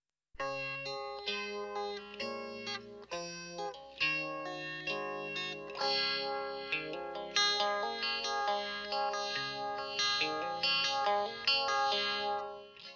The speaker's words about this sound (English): The first sound we hear is a delicately played electric guitar with a phasing effect on it.